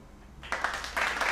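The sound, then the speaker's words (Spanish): After a short quiet moment, a burst of applause breaks out, a dense patter of clapping that stays fairly steady and moderately loud for about a second. “Y pues bueno, con esos aplausos, con esa ovación, pues nos vamos de lleno a nuestro capítulo del día de hoy, ¿no?”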